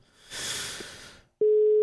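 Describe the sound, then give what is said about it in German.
A burst of line hiss fades to a short silence, then a loud, steady single-pitched telephone ringing tone begins and holds to the end. “Klingeln tut's, das ist ja das, ne? Und es klingelt auch so deutsch irgendwie.”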